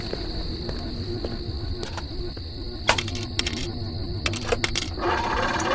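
Coins and car keys, thrown toward a lake by the Zodiac killer, drop in two quick clusters of bright metallic clinks and jingles over a steady background hum with a thin high-pitched whine.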